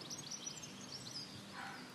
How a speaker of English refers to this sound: I got distracted by the little birds. There's little birds flying around, hopping about.